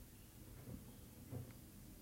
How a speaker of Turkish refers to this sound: Sesin gitti. Evet çünkü bir telefon çaldı.